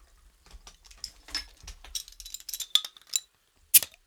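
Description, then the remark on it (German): Glass clinks and clatters as someone pours themselves another drink, a quick series of sharp, bright taps with one last ringing clink near the end, no voices. “Warte, ich schütt, ich schütt mir noch einen ein.”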